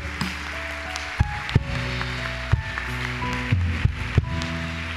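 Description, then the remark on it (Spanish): A church audience applauds loudly for God, a dense, steady crackle of clapping with a few sharper thumps standing out, while sustained musical tones hum underneath. No one speaks. “Ahora sí, ese aplauso bien fuerte al Rey.”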